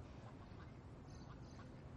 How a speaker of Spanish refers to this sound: He pensado que nos vendría bien salir de la oficina. Sentarnos aquí y ver cómo pasan el día los patos.